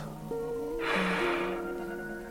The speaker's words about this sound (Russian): Мощный вдох через нос